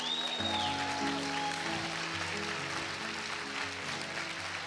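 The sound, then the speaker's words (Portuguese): An audience applauds steadily, a dense wash of many hands clapping at once, with sustained keyboard or organ notes playing underneath throughout. “Grita bem alto. Eu não estou preso, não. É isso, é isso. Aplauda, Senhor.”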